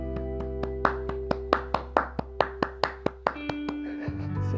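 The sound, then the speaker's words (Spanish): One person claps a dozen or so times in a quick, steady rhythm, sharp and fairly loud, over steady humming tones that carry on after the clapping stops. “Entonces, desde mi punto de vista se ve y amerita un aplauso.”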